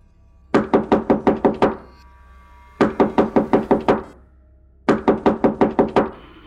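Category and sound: impact, banging on a door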